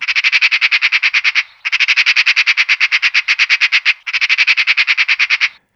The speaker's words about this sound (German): Ich hoffe, ich habe Sie nicht zu sehr erschreckt mit diesem Schreien, das ich ganz ohne Vorwarnung eingespielt habe, dieser Schrei einer Elster. Ich wollte Ihnen demonstrieren, wie solch ein Schrei eine Stimmung ganz plötzlich, abrupt verändern kann.